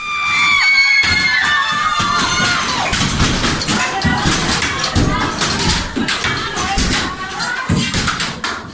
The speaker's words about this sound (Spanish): Un grupo de unas 20 mujeres fue el primero en entrar. Sus gritos rabiosos salían desde los pulmones.